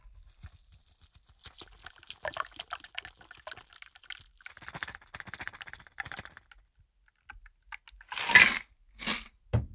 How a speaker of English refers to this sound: And now strain it into a cocktail glass.